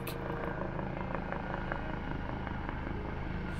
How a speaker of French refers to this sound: Au balai des hélicoptères qui recherchent les traces du véhicule de la famille Flactif